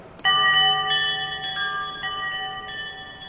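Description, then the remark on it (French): A stainless-steel sensor plate of the Omni instrument is struck once; a sensor beneath turns the strike into an electrical, then digital signal that fetches a sound from a computer, setting off a bright, bell-like electronic tone that rings out with layered high overtones and sustains for several seconds, shifting slightly as it slowly fades. “Là, je vais frapper une plaque.”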